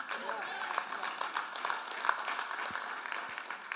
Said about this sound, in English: If we're going to clap, let's commit to clapping together. We believe in unity here. So, let's try that again.